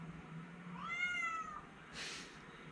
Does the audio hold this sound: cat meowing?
yes